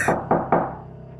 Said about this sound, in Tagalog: Patuloy pa rin ang kaluskus at katok